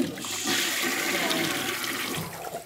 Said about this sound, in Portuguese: eu vou dar descarga na Juliette